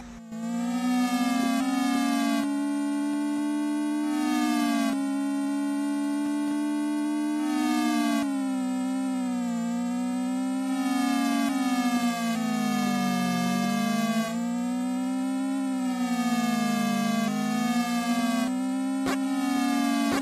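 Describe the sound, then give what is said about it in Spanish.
Retro video game music plays continuously, a bright buzzy synthesized melody over a steady electronic bass line, with gliding pitch sweeps and repeating phrases every couple of seconds. No one speaks. “Vamos a escuchar este juego.”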